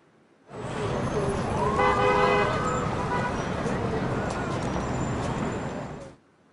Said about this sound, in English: And here's a recording of Times Square in New York.